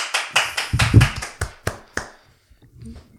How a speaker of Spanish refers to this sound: que sea autoaplaudido, porque claro, como es regidora del programa... No puede aplaudir, pero... Pero puede hacer que aplaudan otros.